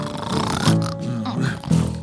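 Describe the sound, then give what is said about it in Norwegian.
A pig grunts and oinks several times, a run of loud, throaty snorts and squeals packed into about two seconds with no talking. “Å, de er så utrolig grisete, disse her grisene her.”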